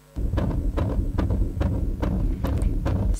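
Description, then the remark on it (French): A fetal heartbeat on an ultrasound monitor: fast, steady whooshing pulses, about eight beats in quick succession, loud over a constant low rumbling hiss. “Et là, je vois un petit sac et un petit cœur qui bat, et j'entends”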